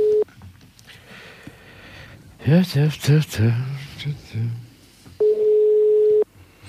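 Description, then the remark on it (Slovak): A steady telephone ringing tone sounds over the line, one short burst at the start and a longer one near the end, with a person talking briefly in between and no answer. “Ten je tak poverčivý, že nebere nejaké telefóny.”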